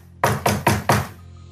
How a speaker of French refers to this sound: Il arrive devant une porte d'Eric pour venir parler à quelqu'un, donc il tape.